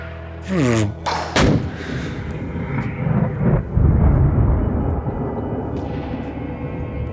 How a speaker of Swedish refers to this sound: Så plötsligt hör vi hur det visslar till och så en explosion lite längre bort och då ser vi att då har vi kommit under eld från regimstyrkorna där nere.